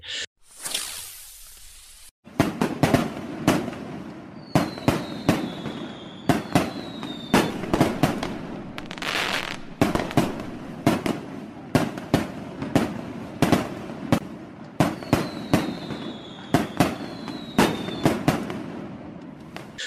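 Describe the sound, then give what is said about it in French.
A rapid barrage of fireworks: sharp, loud bangs and crackles burst repeatedly after a brief hiss, with occasional whistling streaks rising between explosions, no voices present. “Alors là, c'est le moment où est-ce qu'on aimerait savoir des, des de feu d'artifice avec euh, des petits bruits de, de timbales et euh, du qui, euh, qui va dans la rue.”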